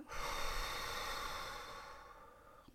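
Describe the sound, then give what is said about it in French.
A long, forceful exhale pushed out through the mouth during a breathing exercise, emptying the lungs: a steady breathy rush lasting over two seconds that slowly fades toward the end, clear with no talking. “Je souffle, je vide.”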